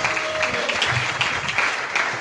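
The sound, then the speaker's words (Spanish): An audience claps steadily throughout, a dense, even wash of many hands applauding together at a fairly loud level, with no voices standing out above it. “Así quiero, quiero que le regresen ese aplauso”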